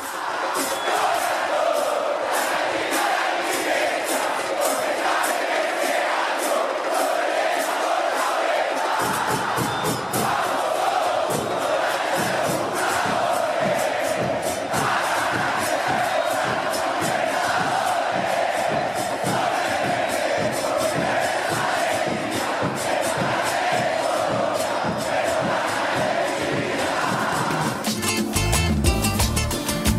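A large crowd of Atlético Nacional football fans sings a stadium chant in unison, a loud, continuous wall of voices with steady rhythmic pulses, growing fuller after the first several seconds.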